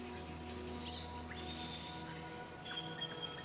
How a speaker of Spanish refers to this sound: del trinar de las aves